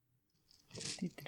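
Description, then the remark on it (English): Dice roll and rattle in a short, soft clatter of small clicks that builds over about half a second, with a faint murmur of voice underneath. “Just get a bit more of that dice. Yeah, that's a good sound.”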